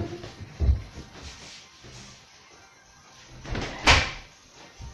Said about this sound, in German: Ich muss kurz die Tür zu machen.